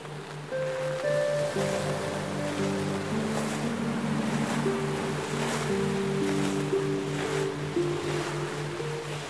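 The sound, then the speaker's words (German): Ocean waves crash against black rocks on a coast in a steady wash of surf, with loud surges arriving every second or so. Soft, sustained musical tones hum underneath throughout. “Du hörst das Rauschen der Wellen, die an schwarze Felsen schlagen.”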